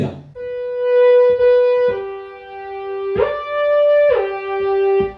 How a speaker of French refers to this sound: Alors en fait, bah, quand j'appuie sur une note, donc là c'est un La, si j'appuie sur le La au-dessus, il y a un effet de glissement.